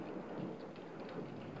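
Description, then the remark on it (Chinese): Steady, dense rainfall hisses evenly throughout late at night, with a soft low rumble of thunder blending underneath, during a storm with lightning. No voices, just the constant wash of the storm. “外面开始下起雨来，连带着的还有闪电。”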